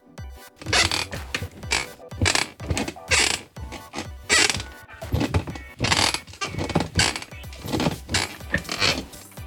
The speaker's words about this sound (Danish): Vil du være Stol? Tusind tak, fordi du gad komme forbi mig og knirke i dag.